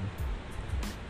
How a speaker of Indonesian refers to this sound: kalian bisa denger ya itu suara hujan mungkin ketutup sama suara back sound mungkin